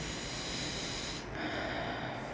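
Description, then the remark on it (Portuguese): A single long, deep breath taken as a breathing exercise, a steady airy inhale followed by a slower, softer exhale, with no talking. “Isso não vai acontecer, isso não vai acontecer, tá tudo bem, tá tudo tranquilo e você respira.”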